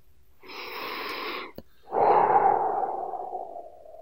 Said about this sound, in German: Atmet tief ein und aus.